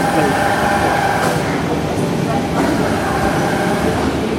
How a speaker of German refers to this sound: Also die Gruppe guckt jetzt alle in eine Grube hinein. In dieser Grube ist ein Rechen, ein automatischer Rechen in Aktion gewesen. Das waren diese komischen Geräusche, die wir gerade gehört haben. Also das ist die Reinigungs, ja, die Vorreinigung